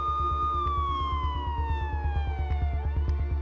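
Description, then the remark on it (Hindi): A police siren, coming from far away and growing louder, wails loudly and steadily, its tone sliding slowly downward, over a fast, regular low thumping rumble underneath. “उसे दूर से आती हुई पुलिस के सायरन की आवाज थोड़ी देर में सुनाई देने लगी जैसे जैसे सायरन की आवाज तेज हो रही थी उसका पागलपन बढ़ता जा रहा था”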